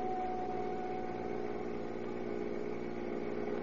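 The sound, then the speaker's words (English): The engine of a maroon Chrysler Roadster carrying three people runs steadily at night, a continuous low droning hum with a faint idling throb, holding an even loudness throughout with no voices. “In one of these cars, a maroon Chrysler Roadster, are three conspirators”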